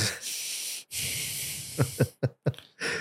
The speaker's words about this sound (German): Bei mir ist es mein Atmen durch die Nase.